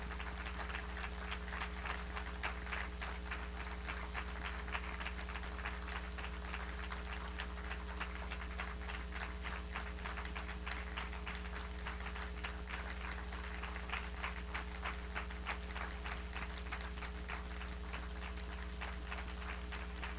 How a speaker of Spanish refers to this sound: Si te dijo ahorita, si tú sabes que yo te digo ahorita que le des un aplauso a Cristo y tú sabes que es el último aplauso que vas a dar, ¿cómo se lo darías? A ver, dale un aplauso a Cristo.